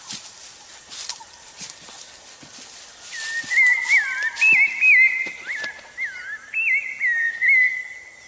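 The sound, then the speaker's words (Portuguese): A person whistles a melodic imitation of a sabiá thrush song, a series of clear sliding phrases, loud and fluid, starting after a few seconds of faint background ambience. “Sabiá. Sabiá.”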